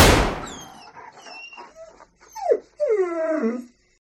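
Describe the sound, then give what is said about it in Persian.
A dog whimpers, a series of high, wavering whines and short yelps rising and falling in pitch, following a brief burst of noise at the start, with no one talking. “بعدم گفت دیگه نگران سگ نباش کشتش”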